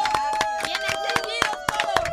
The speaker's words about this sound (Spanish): Óigame, no, happy birthday y gracias de verdad a todos ustedes. aplauso para ustedes que vinieron acá.